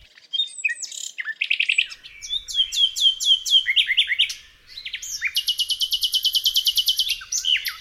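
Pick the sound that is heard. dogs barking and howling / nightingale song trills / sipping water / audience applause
nightingale song trills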